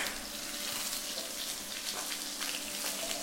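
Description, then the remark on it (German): Hot fat sizzles steadily in a frying pan as food is seasoned with salt and pepper, a dense continuous hiss sprinkled with sharp little pops and spatters of fat, with no voices. “Während ich mich jetzt, glaube ich, ins Nebenzimmer begebe, weil mir ja, los, das Fett ins Gesicht spritzt.”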